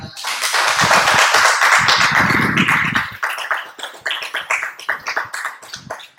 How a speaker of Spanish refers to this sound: Dale un aplauso a Dios, familia.